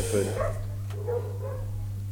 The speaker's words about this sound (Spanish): La perrada está como loca. Los niños andan pidiendo caramelo. No, eso no está en el texto. Eso está pasando. Eso está pasando afuera, gente.